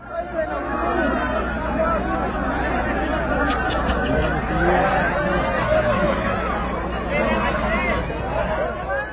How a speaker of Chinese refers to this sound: 刚刚大家听到的声音，应该会觉得很吵杂，但是应该也听到夹带好多好多的哭声，而且都是比较稚嫩的童音。这个现场音是发生在八月中旬到下旬的喀布尔国际机场。